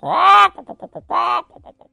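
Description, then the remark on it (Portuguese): A voice imitates a rooster crowing: two loud, drawn-out calls, each followed by a quick run of short clucking syllables, with nothing else in the background. “E o galo cocoricava.”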